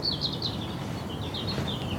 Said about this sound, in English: And I heard those birds chirping, and I feel like he's talking back to me.